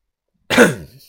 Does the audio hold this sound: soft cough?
yes